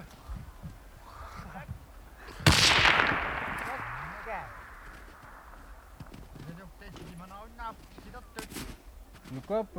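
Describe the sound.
A single loud gunshot, fired at a large hooded seal near the ice edge, cracks out sharply, then trails off in a long, fading rumble over a couple of seconds, with people talking quietly before and after the shot.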